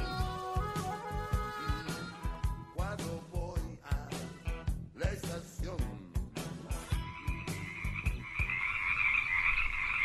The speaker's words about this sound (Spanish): Oyen todas esas ranitas.